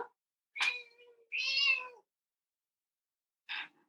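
A cat meows several times: a short call, then a longer drawn-out meow, a pause, and one brief final mew. No one speaks over it.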